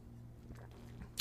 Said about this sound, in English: had to take me a little sip. I got my wine here.